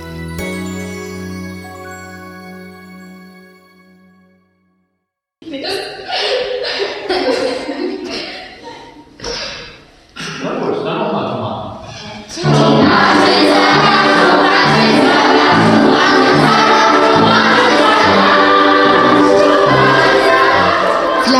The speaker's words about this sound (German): Vielleicht ist es schon zu hören. Heute bin ich im Kinderchor zu Gast. Und es ist unverkennbar. Die Kinder haben unheimlich viel Spaß. Da wird ja auch mit dem ganzen Körper gesungen.